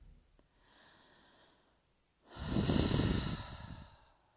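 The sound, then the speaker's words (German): Slow, calm breathing of a person holding a deep forward stretching exercise with the head on the floor: a soft, drawn-out inhale followed by a longer, louder, airy exhale, with no talking. “Und so versuche ich ganz ruhig weiter zu atmen.”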